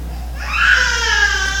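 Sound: baby crying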